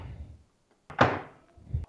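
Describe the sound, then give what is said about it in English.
A microwave door clicks open with a sharp thunk, followed by a metallic clatter and scrape as a cookie sheet slides inside, with no talking. “Now I'm carrying the cookie sheet and all over here to the microwave.”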